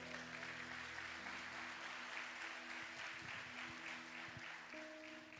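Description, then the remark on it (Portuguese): An audience applauds Jesus at an evening service, a dense wash of many hands clapping at an even level throughout, with a low sustained organ-like tone humming beneath it. “Você pode aplaudir a ele nessa noite?”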